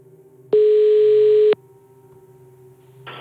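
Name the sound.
telephone ringing tone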